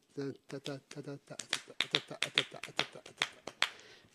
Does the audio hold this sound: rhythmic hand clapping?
yes